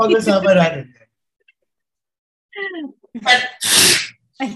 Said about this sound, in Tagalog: bless you.